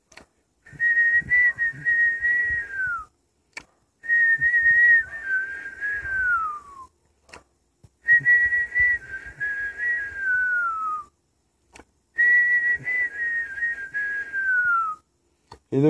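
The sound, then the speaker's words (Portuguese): A little bird's whistling: four long, steady mid-high whistled notes, each lasting a few seconds and sliding downward at the end, separated by short pauses, with no talking. “Olhou, o passarinho ainda estava a subiar.”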